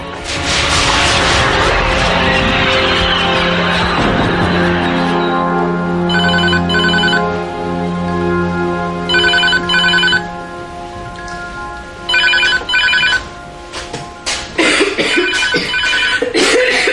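A telephone rings in three short, evenly spaced bursts of bright electronic trilling, sitting over a loud, sustained musical background with no voices.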